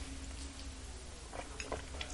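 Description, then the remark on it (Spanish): A long, quiet sip of coffee, with soft slurping and small wet mouth clicks over a low steady hum; no one speaks. “El café de viernes es más que necesario, sobre todo en una semana tan intensa informativamente, así que me voy a dar un sorbito bien, bien largo.”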